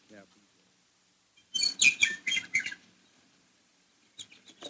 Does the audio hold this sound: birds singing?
yes